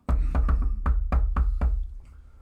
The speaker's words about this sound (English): I knock on the door first.